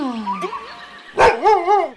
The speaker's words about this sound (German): Alle Hunde können bellen.